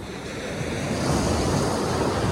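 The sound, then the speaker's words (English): Waves breaking on a beach on the North Shore of Massachusetts in the morning, a steady, loud rushing wash of surf mixed with gusty wind buffeting the microphone; no voices. “Well, walking along the beach here this morning, hoping to uh, show everybody what the hell's out here.”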